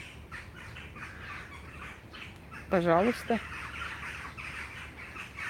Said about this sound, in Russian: И вороны разнервничались.